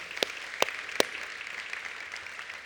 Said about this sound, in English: And I also just want to welcome our Appleton campus and our online campus, Germantown. Can we give a big round of applause to them today?